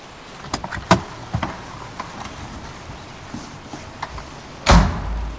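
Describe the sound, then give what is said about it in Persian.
A few light clicks and knocks, then a sharp, loud thud near the end, like a car door being pulled open and shut, with a brief rumble after, as someone gets into a taxi on a rainy street. No one speaks. “یکی نشست تو ماشین سلام آقا یا مسافر نشسته بود تو ماشین”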